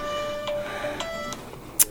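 A phone rings with a steady electronic ringtone for an incoming call, sustained tones punctuated by a few sharp ticks, clear, with no one speaking.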